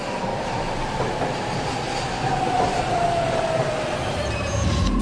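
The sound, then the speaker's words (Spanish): A Kodama Shinkansen train bound for Shin-Osaka running: a steady, loud mechanical roar with a dense low rumble, plus a thin whine that holds and slowly slides downward in pitch. No one speaks. “この電車は小玉号新大阪行きです”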